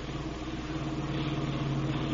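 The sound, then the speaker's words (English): The engine of a stolen car on a joyride drones steadily at a constant pace throughout, a continuous low hum with no voices, as if heard from inside the moving vehicle. “This car ain't even reported stolen yet.”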